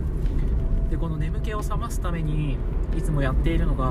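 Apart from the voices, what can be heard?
car interior noise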